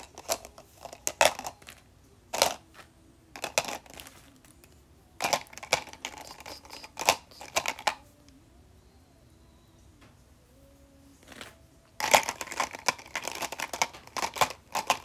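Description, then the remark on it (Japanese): Bursts of clattering and rustling as freshly wiped objects are handled and set back into a case, with irregular clicks and crinkles separated by quieter pauses, the busiest stretch at the end. “やっと全部拭き終えたんでケースに戻して。”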